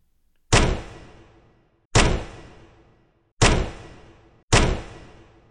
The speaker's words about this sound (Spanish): Tocó la puerta fuertemente con el aldabón.